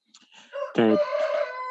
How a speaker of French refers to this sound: Ah, génial, on entend le, le, bruit du coq, quoi. C'est génial.